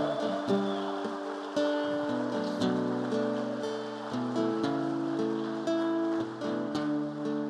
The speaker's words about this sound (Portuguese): Aplauda o Senhor, querido. Ah, mas aplauda de verdade.